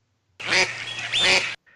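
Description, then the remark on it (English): Two loud, raspy duck quacks in quick succession, each a harsh nasal burst lasting about half a second, followed by a brief faint trailing call. “yeah, that's a ah, duck.”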